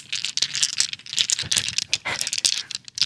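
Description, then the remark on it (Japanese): Hard plastic mahjong tiles clatter and rattle continuously, a dense jumble of small clicks as the tiles are shuffled and knocked together in front of a microphone set up for them, with no voices. “これはみんなが求めてる麻雀の音なのかなこういう音が鳴るんですよ”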